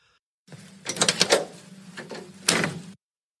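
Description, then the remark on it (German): Mechanical clunks and latch clicks over a low hum, ending in one firmer thud like a car door being pulled shut, with no voices. “Du bist ja jemand, von dem man sich erzählt, dass er früher ein Auto wieder zurückgegeben hat, weil ihm es nicht gefallen hat, wie es klingt, wenn er die Tür zumacht.”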